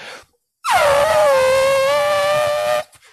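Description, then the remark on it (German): A loud, steady buzzing tone from a person's lips pressed tightly together, vibrating faster than 16 times per second, starting with a brief downward slide in pitch, then holding a bright, brassy note for about two seconds before stopping abruptly. “Aber wenn wir unsere Lippen eng aufeinander machen und feste drücken, dann”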